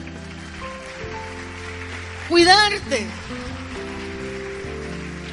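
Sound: audience applause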